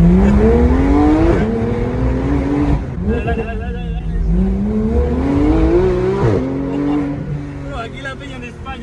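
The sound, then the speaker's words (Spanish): A loud Porsche 911 GT3 sports car engine revs repeatedly, its pitch climbing and dropping through several throttle blips, dominant, with a man's voice speaking over it. “No pasa nada, señora, no pasa nada. Todo va bien, todo va bien, suena mucho.”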